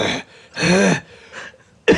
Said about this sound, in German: dann muss ich so husten, aber es ist ja nicht Corona